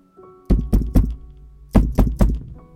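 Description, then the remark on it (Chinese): Loud, heavy knocking with the knuckles on a door: two sets of three solid thuds, each set evenly paced, separated by a short pause. No voices are heard. “我敲得很大声，敲得手指关节清晰作痛。”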